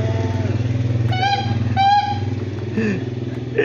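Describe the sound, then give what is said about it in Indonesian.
A street food (siomay) vendor's motorcycle passes along the street at 11 at night. Its engine rumbles with a steady low drone, revs up in two quick bursts, then settles back as it idles and moves along. “tukang somai lewat mulu nih kalau kita rekaman”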